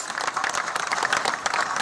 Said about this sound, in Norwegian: Og nede på gata er det applaus.